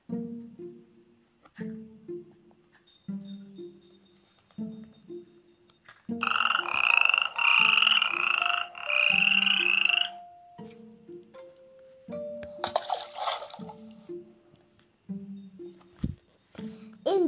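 Toads croak in a steady, repeating rhythm of low, throaty pulses, joined midway by louder, buzzing bursts of calling that swell and fade. No one speaks.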